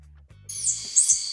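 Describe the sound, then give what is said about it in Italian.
A tarsier's thin, very high-pitched squeaky call, a sustained shrill whistle that wavers and rises briefly, over a faint low rumble. “piccolina, ma con gli occhi grossi, quindi è un tarsio direi.”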